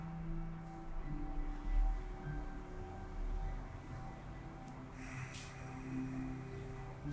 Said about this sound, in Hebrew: ותמשיכו לנשום. תתחברו גם לצליל הנשימה שלכם, נשימות אוג'אי, עם קיבוץ הדין של החלק האחורי של הגרון.